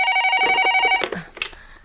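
A telephone rings with a bright, sustained electronic tone for about a second, then stops and gives way to a few clicks and clattering handling noises.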